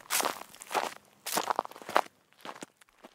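Footsteps of someone setting off for class after hearing a bell walk away at a steady pace, each step a crisp, slightly crunchy thud that grows fainter toward the end, with no voices present.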